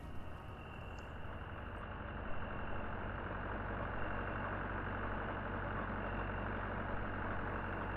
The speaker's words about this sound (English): I'm not sure what wakes me. Maybe it's the low thrum of the diesel engine vibrating the walls, or the cold cone of light that spills suddenly across my ceiling at two in the morning.